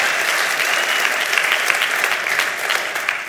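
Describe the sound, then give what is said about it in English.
A church crowd applauds its staff leaders steadily, a dense, even wash of many hands clapping at once, holding at a strong, constant level throughout with no voices standing out. “Can y'all give it up for these guys right here?”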